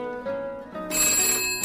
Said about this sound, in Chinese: 电话响了，妈妈忙放下熨斗去接电话。